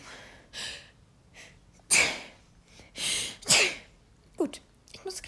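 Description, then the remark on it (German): A loud sneeze bursts out after some sharp inhales, followed by another sneeze-like blast and quieter breathy sounds, with no talking. “niesen.”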